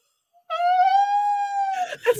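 A woman lets out a single long, loud, high-pitched moaning wail, sea lion–like, holding steady for over a second before breaking into short, rough vocal noises.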